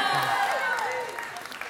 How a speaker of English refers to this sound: Yeah, he's not here to hear your applause, but if he watches this YouTube, then, then he'll definitely hear it.